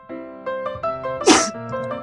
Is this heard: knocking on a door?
no